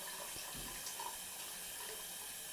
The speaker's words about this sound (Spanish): Respiré hondo. Encendí el agua corriente de la bañera y me preparé para meterme en ella.